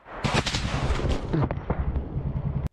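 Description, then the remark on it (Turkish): Dense, continuous gunfire with repeated sharp cracks and heavy low booms overlapping in a loud, chaotic barrage, with no one speaking; Russian fire in a firefight in a wooded area, filmed by a Ukrainian soldier in a trench. “Rus ateşini görüntülemeye başladı. Bir süre sonra kurşunların hedefi olan asker omzundan yaralandı.”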